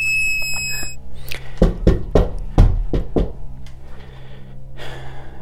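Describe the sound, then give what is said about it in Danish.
A steady, high electronic beep from a bug-detecting device (a 'boxwiper') used to search for hidden microphones in Madrid holds for about a second, followed by five sharp, irregular knocks and a brief breathy rush near the end; no one speaks. “Et lidt tvivlsomt bip fra min boxwiper.”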